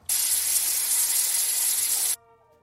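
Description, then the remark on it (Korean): A steady, loud aerosol hiss from a can of hair mousse, used to set front bangs upright, sprays continuously for about two seconds, then cuts off abruptly into near silence. “소리는 스프레이 같지만 최신형이라 그래요.”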